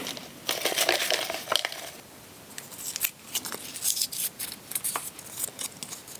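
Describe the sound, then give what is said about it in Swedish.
Quiz answer slips being poured together and stirred and shuffled around for a prize draw, a steady crisp rustling with irregular louder scrapes and crinkles over about six seconds, with no talking. “Då tar vi även och häller i de här svaren som inte hade alla rätt och blandar om lite.”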